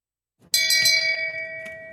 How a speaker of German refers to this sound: Shame. Ja, ja wofür es vor allem auch eine Shame-Glocke gibt.